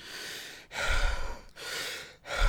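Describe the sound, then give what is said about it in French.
A voice imitates a film character's heavy, hissing breathing through a gas mask: slow, rasping inhales and exhales, about three loud breaths separated by brief pauses, with no talking. “Non mais c'est hyper fort je trouve ce plan dont tu parles euh, fait avec le, masque à gaz aussi, il faut saluer le, montage parce que c'est monté au rythme de la respiration du personnage.”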